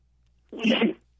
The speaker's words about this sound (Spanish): Perdón, tengo que estornudar.